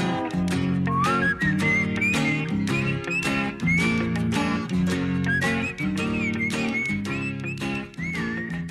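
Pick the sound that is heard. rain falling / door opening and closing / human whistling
human whistling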